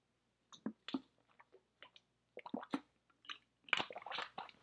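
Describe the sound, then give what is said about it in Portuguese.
Someone drinks water, with a series of soft, wet gulps, swallows and small mouth clicks at an irregular pace, quiet and with no talking. “Eu vou beber água e eu quero que você pense em coisas que podem ter roubado os seus sonhos.”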